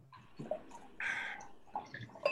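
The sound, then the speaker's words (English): Wine, a 2017 Gary Farrell Sonoma County Pinot, pours into a glass: a short gurgling stream with a steadier splash in the middle and a few small clinks and drips around it. “Uh, but I have a Gary Farrell, uh, which is a Sonoma County Pinot, 2017, well ranked. So now I'm pouring it.”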